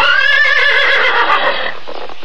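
A horse lets out a loud whinny as its rider rears it, a shrill wavering neigh lasting about two seconds that trails off into breathy snorting at the end. No one speaks.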